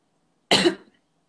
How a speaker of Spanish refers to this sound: No, es que estaba tosiendo yo, Dios mío, los mute, porque si no se va a escuchar.